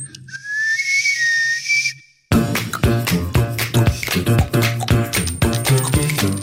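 A shrill, sustained steam whistle blasts for about two seconds with a low hum beneath it, then cuts off and loud, rhythmic music abruptly takes over.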